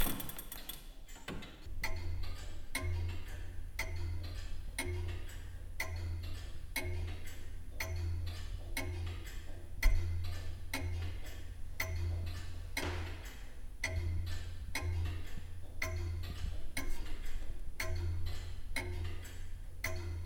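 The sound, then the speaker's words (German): Steady, evenly spaced ticking of an old floor-standing clock from 1760, clear, with a low mechanical hum underneath and no voices. “Ein geübtes Ohr wie das der Uhrmachermeisterin kann aber schon am Ticken erkennen, wie es der Uhr geht, wie bei dieser Bodenstanduhr von 1760.”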